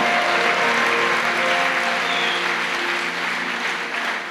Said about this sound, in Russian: Дай ему большие аплодисменты. Аллилуйя. Дай ему большие аплодисменты.